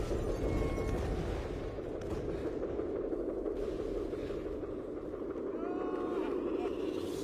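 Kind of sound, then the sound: sound effect, explosion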